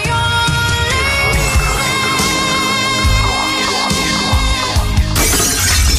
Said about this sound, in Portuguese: O seu vidro quebrou? A Arte em Vidro tem a solução.